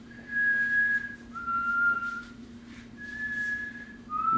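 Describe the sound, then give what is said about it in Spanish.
A person whistles a slow, eerie tune of four long, held notes that slide between pitches, mimicking a whistle heard from far away, over a steady low hum. The imitated whistle was heard while riding in a car with loud music playing. “con la música alta, maje, yo empecé a escuchar un silbido a lo lejos”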